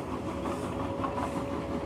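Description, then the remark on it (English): A steady, continuous rumble of a train rolling along the rails, heard from inside with a faint hum running underneath and no voices. “Now, hear yourself saying, as you drift and float on this dreamy train ride,”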